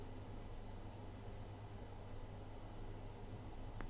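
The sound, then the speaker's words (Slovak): A neighbour's running water makes a faint, steady rush, muffled as if through a wall, hissing on without a break for the whole clip. There are no voices. “No, už rozmýšľam, že mi tuto ona púšťa vodu suseda, že to bude počuť na mikrofóne.”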